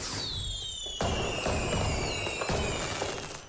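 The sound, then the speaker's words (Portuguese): Fireworks: shrill whistling rockets glide downward in pitch while several sharp, crackling bursts pop at irregular intervals, loud and steady throughout with no talking. “E isso merece ser celebrado com o nosso fogo de artifício muito especial.”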